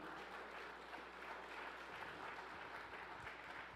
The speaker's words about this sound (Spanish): Vamos, a denle un aplauso fuerte al Señor.